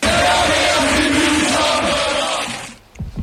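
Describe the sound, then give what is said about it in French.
Football supporters in the stands chant together loudly in sustained unison, recorded on their mobile phones, a dense roar of massed voices that cuts off abruptly near the end, leaving brief quiet noises. “Euh, mais bon, t'es un peu l'auteur du, chant quand même.”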